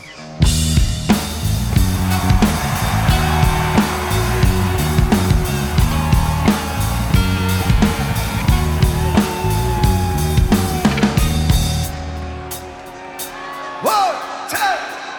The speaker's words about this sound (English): Oh, the, the crowd explodes when they start into it. It's like, yeah, everyone was waiting for this.